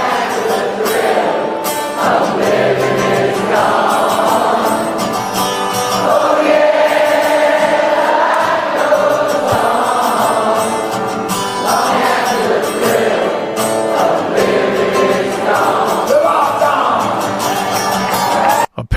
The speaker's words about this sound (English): He won't sing the song. He lets the crowd sing it because he just doesn't want to sing it. So it's just like, I'll get you started. You guys sing the song.